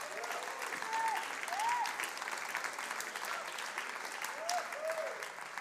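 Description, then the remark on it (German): An audience applauds steadily, a dense wash of clapping that holds at an even level throughout, with a few faint whistles or cheers rising briefly above it. “Komm, lass uns jetzt mal einen Applaus geben.”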